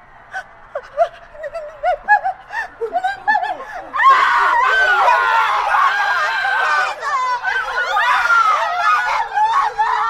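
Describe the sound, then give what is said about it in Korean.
An infected person looks at their own arm as it turns monstrous. They breathe in short, panicked gasps and whimpers, then break into loud, sustained screaming of horror that continues until the end. “감염자는 자신의 팔을 보면서 비명을 지른다.”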